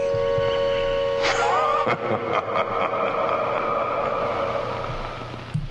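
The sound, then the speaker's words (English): An old film soundtrack with steady tones and music, crackling throughout with scattered pops and scratches, a cluster of sharp clicks in the middle, and a constant noisy hiss underneath. “okay, and you could hear the kind of popping and scratching uh, in the soundtrack at the end of that.”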